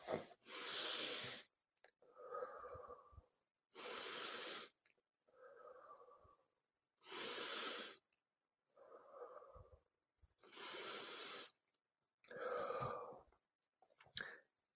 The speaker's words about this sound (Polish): Wdech, wydech. Wdech nosem w brzuch i wydech. Wdech, wydech.